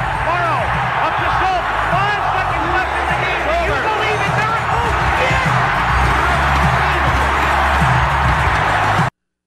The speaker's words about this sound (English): the eruption of that crowd when it officially hits zero is just iconic, David.